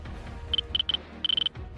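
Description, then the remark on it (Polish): A keycard reader at a door of a building complex gives a few short, high electronic beeps as a card is held to it, then a quick run of five rapid beeps, all crisp against a faint low background hum. “wyciąga jakąś kartę, którą przykłada do, którą po prostu przykłada do czytnika.”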